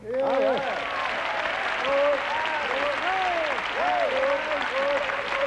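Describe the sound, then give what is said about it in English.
A crowd applauds steadily and loudly for several seconds, welcoming a mandolin orchestra onto a show, with scattered cheers and whoops rising above the dense clapping throughout. “Please give a warm welcome to the”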